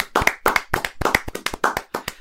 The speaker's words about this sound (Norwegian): Så jeg vet ikke, vil du klappe, eller skal jeg klappe, eller hvem er det som skal klappe for lytterne?